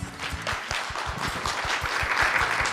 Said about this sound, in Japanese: 皆様拍手でお迎えください